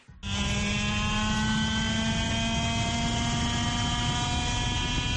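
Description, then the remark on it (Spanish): A racing car at the Chiva circuit, the car driven by Roldán Rodríguez, Roberto Meri, Carlos Sainz and Félix Porteiro, roars at a steady, sustained high pitch after a sudden start, loud and continuous with a dense whine of harmonics and no voices. “Bueno, pues eh, esta bestia es la que han estado pilotando Roldán Rodríguez, Roberto Meri y Carlos Sainz junto a Félix Porteiro en el circuito de Chiva.”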